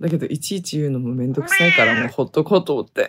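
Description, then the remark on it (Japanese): A cat lets out a loud, drawn-out meow partway through, at home around midnight, cutting across steady, hushed talking from a person who keeps speaking before and after it. “ごめんなさい。猫がうるさい。”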